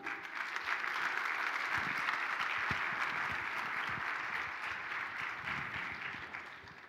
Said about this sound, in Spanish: Y denle un aplauso a Cristo, hermano.